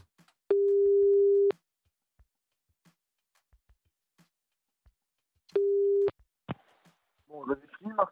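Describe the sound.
A steady mid-pitched telephone busy tone sounds for about a second, falls silent, then returns briefly before a couple of clicks and a voice starting to speak.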